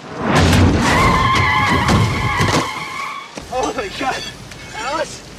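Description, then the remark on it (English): A car's tires screech loudly in a long, sustained skid lasting a few seconds as the car hits a pedestrian, with engine rumble beneath, then the squeal cuts off and a person's voice is heard speaking. “Not a spineless man who will get hit with a car.”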